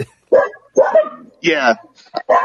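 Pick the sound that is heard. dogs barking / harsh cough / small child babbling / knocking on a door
dogs barking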